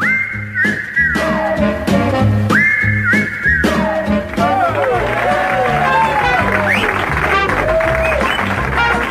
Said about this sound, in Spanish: Muy bien, muchas gracias por los aplausos para el participante número uno.